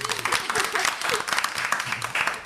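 A crowd applauds the awarding of a first point in a game, the dense crackle of many hands clapping at once holding an even, moderate loudness for a few seconds without pause.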